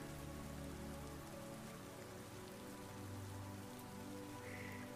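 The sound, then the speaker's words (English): Steady rain of huge drops patters on the roof of a house across the street from a beach on a gray spring day, a dense, continuous wash of droplets with a low rumbling undertone and no voices, evenly sustained throughout. “We can hear the drops hitting the roof.”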